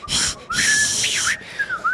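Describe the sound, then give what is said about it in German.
A person imitates a train's thin, breathy whistle with lots of rushing air, wavering in pitch over a couple of short bursts, moderately loud with no talking. “Der Zug war relativ voll und hat die ganze Zeit so psychomäßig gepfiffen.”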